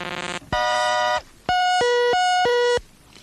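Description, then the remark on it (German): A short electronic jingle for the Radio DDR traffic service in East Germany, made of bright, synthetic tones: a buzzy opening blip, a sustained chord, then a bouncing pattern of alternating high and low beeps, loud and without any voices. “Radio DDR Verkehrsservice. Nennen wir es experimentell.”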